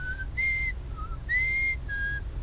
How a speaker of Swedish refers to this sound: visslar en något eh, vissen melodi.